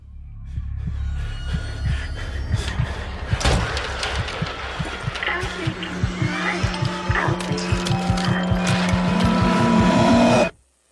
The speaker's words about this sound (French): ces étranges quelques secondes euh, sont en fait, euh, la, est en fait la musique de l'intro, du logo de la société Blue Mouse